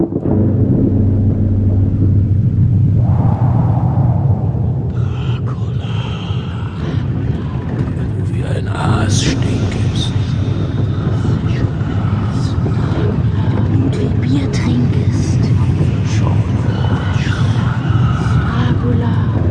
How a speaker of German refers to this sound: Bald darauf rollt der Wagen mit den Reisenden durch die totenstillen Straßen der Landstadt.